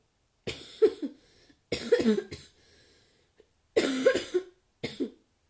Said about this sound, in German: Manchmal muss ich hier husten.